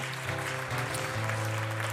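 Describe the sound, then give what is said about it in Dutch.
An audience at a morning church service applauds for Jesus, a dense, continuous wash of clapping at fairly high volume over a low sustained organ-like tone, with no distinct voices standing out. “Zullen we Jezus een applaus geven vanmorgen?”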